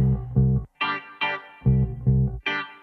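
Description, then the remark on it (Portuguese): A bass and an electric guitar trade short phrases: two deep bass notes, then two bright, effects-laden guitar bursts, the bass again, and a final guitar stab, like a call-and-response. “O barulho da conversa do baixo com a guitarra é.”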